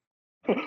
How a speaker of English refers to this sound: Bless you.